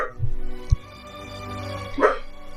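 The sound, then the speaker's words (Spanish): A dog gives a short, sharp bark near the end, moderately loud, after a brief low thump and a steady background hum. “Cállate, cállate tu perro, weón.”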